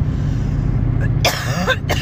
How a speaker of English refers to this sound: Excuse me, I have to I have the coughs right now.